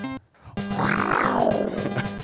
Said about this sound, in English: That's a the purr of the tiger. That was the purr of the tiger.